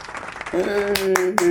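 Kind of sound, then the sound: crowd, hands clapping in applause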